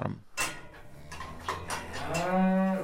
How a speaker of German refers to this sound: Wie jeden Morgen versorgt er seine Rinder im Stall. 23 Kühe und 14 Kälber.